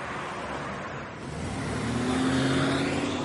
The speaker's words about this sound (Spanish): Un coche pasa por la carretera. Cooper se detiene en la incorporación. Pasa otro coche.